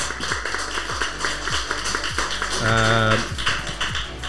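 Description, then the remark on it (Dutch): Applause from a crowd fills the whole clip, with dense, steady clapping and a few sharper claps standing out; a brief cheer or whoop rises above it partway through. “Mag je kunt daverend applaus.”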